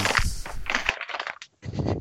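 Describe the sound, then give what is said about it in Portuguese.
A plastic bag of dog food being folded, giving off irregular bursts of crinkly, crackling rustles, a short pause, then one more crumpling burst. No one speaks. “É, a ração provavelmente do cachorro caindo. Ah, tá. Ah, é Vai isso. Não é isso? Eu tava dobrando o saquinho, mas já parei.”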